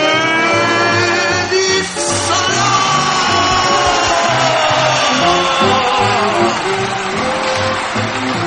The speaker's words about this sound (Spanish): Muchas gracias por esos aplausos, muchas gracias por ese recibimiento, muchas gracias por, por, por esa energía, esa energía que da eh, los efectos de la radio pero que es energía al fin.